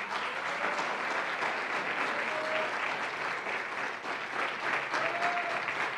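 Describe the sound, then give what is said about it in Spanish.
An audience applauds steadily to receive the word of God, dense clapping from many hands at a consistent loud level for several seconds, with a few faint tonal whistles or voices poking through. “Vamos a recibir la palabra de Dios con un fuerte aplauso.”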